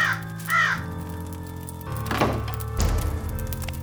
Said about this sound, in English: when with many a flirt and flutter, in there stepped a stately raven of the saintly days of yore.